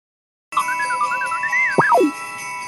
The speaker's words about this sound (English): What is that? That, my silly friend, is the sound of bells. What are bells?